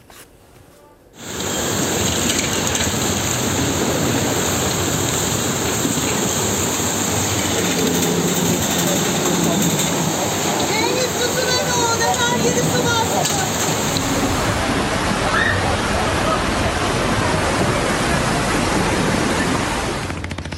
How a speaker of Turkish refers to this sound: Yani bu Sefire, hisar açıklarında aynı zamanda Sisam'da nasıl e, bir tsunami, nasıl bir süpürtü yaşandı? Dükkanlar nasıl su altında kaldı? Nasıl bir sel yaşandı?